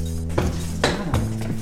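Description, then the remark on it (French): Pots hanging above the stove and dishes clink and knock together in a few sharp, bright bursts over a steady low hum, with no one speaking, in a rustic house in the village of Céreste in the Luberon. “les casseroles au-dessus de la cuisinière là, c'est sympa là.”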